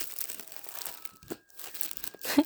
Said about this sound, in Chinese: 忽然来解开一个塑胶袋